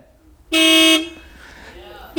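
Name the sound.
car horn honking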